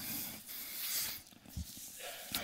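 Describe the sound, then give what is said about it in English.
A sneeze: a breathy, hissing rush of air with a couple of short, sharp bursts, fairly quiet overall, with no talking. “Uh, yeah, bless you.”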